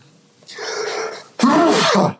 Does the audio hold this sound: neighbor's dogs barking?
no